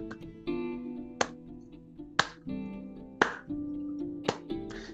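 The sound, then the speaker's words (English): Slow hand claps, four sharp, evenly spaced strikes about a second apart, ring out over a sustained musical tone with no one speaking. “Uh, he he he snaps it up, and you hear a slow clap.”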